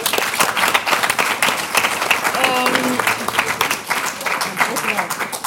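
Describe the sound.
An audience applauds steadily, a dense, continuous patter of many hands clapping throughout, with a voice speaking briefly over the clapping midway.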